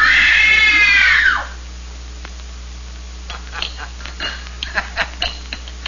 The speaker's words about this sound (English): Good. Now scream. Scream! Scream for your life!